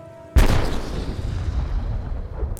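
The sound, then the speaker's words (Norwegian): A single loud warning shot from a 76 mm cannon mounted on a Norwegian guard ship on a fog-covered fjord bursts out after a faint steady hum, its sharp blast rolling into a long, rumbling reverberation that slowly fades. “gir ordre om å avfyre varselskudd med 76 mm-kanonen som er montert på Pol 3.”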